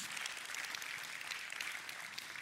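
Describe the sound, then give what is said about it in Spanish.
An audience applauds steadily, a dense wash of many hands clapping that holds at an even level throughout, with no voices on top. “Vamos, apláudale fuerte, porque Jesús lo entregó todo en la cruz.”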